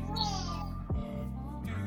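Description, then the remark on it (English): A young girl, wrapped up in her blanket, yells for mama in long, drawn-out, whiny cries, with a brief break in the middle. The voice is fairly loud, with no other talking. “Yeah, she's, yelling mama now.”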